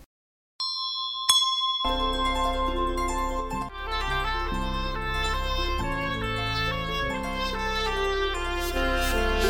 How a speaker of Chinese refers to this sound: 清早的钟声似乎能唤醒身体的元气。